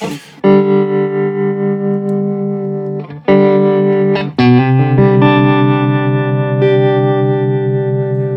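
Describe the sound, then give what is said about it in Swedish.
An electric guitar chord strummed three times and left ringing, played with the tremolo effect switched to its brownface mode; the sustained tone pulses with a gentle, wavering tremolo that softly swells and dips in volume. “Och sen så är det så här, om man drar upp den till eh, brownface-läget. Mm. Jag gör det medan jag har ett ackord på.”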